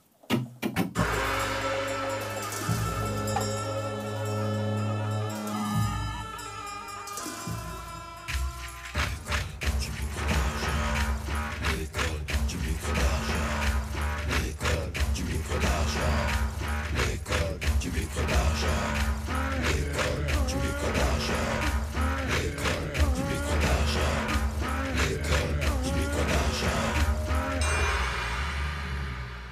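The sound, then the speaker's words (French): The intro of the warrior-style first version of a French rap track recorded in New York opens with sustained, brassy chords, then around eight seconds a heavy, driving beat with deep bass and sharp, steady percussion hits kicks in, loud and dense, with no vocals. “tu veux écouter le premier variant C'était le premier variant, c'était la version guerrière.”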